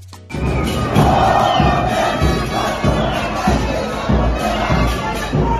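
A large crowd of football fans of the Azul team chants and cheers loudly and steadily at a Friday-night fan gathering, their massed voices forming a dense, continuous roar with rhythmic pulses and occasional low thuds.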